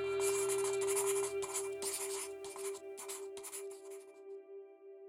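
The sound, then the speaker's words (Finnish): A pen scratches rapidly across the pages of a notebook in quick, uneven bursts of frantic, messy scribbling, fairly quiet, with short pauses between strokes over a faint steady hum. “Hän alkaa kirjoittaa – Sotkuisella käsialalla ja niin vimmatusti, että muste leviää epämääräisinä läikkinä vihkon sivuille.”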